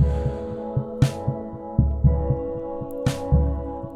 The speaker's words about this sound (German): Und ein Keyboard. Das die drei Akkorde hier spielt, auch mit einer Art Puls, aber langsamer als der Drumbeat und in eine Verzerrung geschickt.